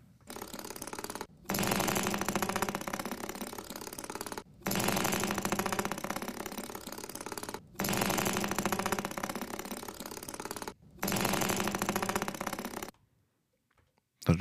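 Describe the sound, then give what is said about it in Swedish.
An old, rough, dirty tractor engine chugs and rattles loudly in four bursts of about three seconds each, separated by brief cut-offs, before falling silent at the end. “där är en riktigt skitig traktor.”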